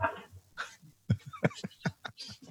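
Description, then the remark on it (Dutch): A pet cat in a studio makes a string of short, low chirping grunts, several quick bursts in an uneven rhythm, moderately loud, with no one talking. “Ik dacht al een kat te horen, ergens.”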